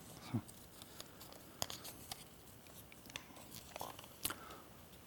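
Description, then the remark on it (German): Soft, crackly tearing of a sheet of paper being torn apart: a scattering of dry rips and sharp little crinkles spread over a few seconds, quiet, with no one speaking. “Und Dimitri riss dieses Blatt Papier auseinander.”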